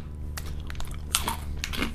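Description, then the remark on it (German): Crunchy bites and chewing of white chocolate, a few sharp cracking bursts followed by softer, moist mastication sounds, fairly loud and with no talking. “Ich liebe weiße Schokolade.”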